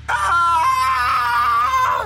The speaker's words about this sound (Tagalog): Sigaw sa sindak ang unang hunter.